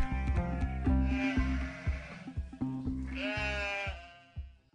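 Sheep bleating loudly, two long wavering calls in a row, each with a quavering, nasal tone, with no talking over them.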